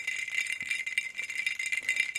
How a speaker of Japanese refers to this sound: めったに出してこないバカラを出してきたんですけどもそんなに 言うほどいい音じゃないおかしいな。ね、そんなにももうちょっといい音すると思ったんですけどこれは何でしょう氷が小さいからいけないんでしょうかカラカラカラカラカラっていうねことを期待して